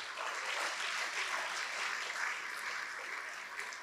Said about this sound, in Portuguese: Você pode aplaudir o Senhor Jesus por isso?